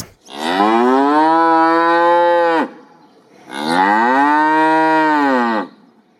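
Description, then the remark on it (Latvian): A cow moos twice, each call long and loud, about two seconds apiece with a short pause between, clear with no talking over it. “Gotiņa. Jā, tā ir gotiņa.”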